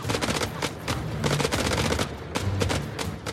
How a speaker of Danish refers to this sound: Der er blandt andet, øh, øh, der er den første øh, ildkampen der, inden at de kommer ned i templet. Der er alle deres gevær, det lyder som, altså, det lyder som hardball-gevær.